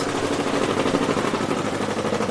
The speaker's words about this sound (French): Alors oui, vous entendez une machine, donc c'est des petits marteaux qui sont fixés sur des plaques métalliques et ces petits marteaux, ils vont impacter le papier euh, sans pour autant le trouer, hein, mais simplement en formant des bosses.